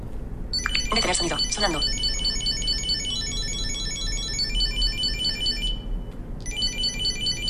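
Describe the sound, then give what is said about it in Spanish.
A Chipolo Bluetooth item tracker plays its ring alert, a loud, high-pitched electronic melody repeating steadily with a short pause near the end. A voice briefly speaks over it early on. “Eh, me dan ganas de decirle, Chipolo, para.”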